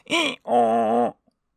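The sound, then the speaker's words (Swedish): A human voice imitates a donkey's bray: a short, high, strained 'hee' followed by a longer, lower, sustained 'haw', loud, with no other speech. “Men samtidigt kände han också hur hans kropp blev konstig och hur han hamnade på alla fyra och hur hans öron växte och istället för ljud ur hans mun som var ord så kom ett”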